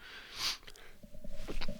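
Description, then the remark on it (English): A single sharp sneeze bursts out, followed by a few quieter, breathy sniffing and shuffling sounds. No one speaks. “I'm gonna sneeze.”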